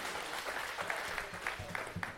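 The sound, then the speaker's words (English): A crowd claps steadily for a couple of seconds, a dense patter of many hands, moderately loud with no one speaking, applauding four baptisms held at a youth service. “So give a round of applause for them.”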